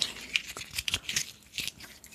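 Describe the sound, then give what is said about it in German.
Crisp, irregular crackling and crinkling as a small bottle of Fürst von Metternich Sekt is opened, a quick series of sharp, bright rustles and snaps with no voices. “Das, die Flasche öffnen. Das ist eine ganz besondere Flasche.”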